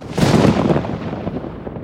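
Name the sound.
clap of thunder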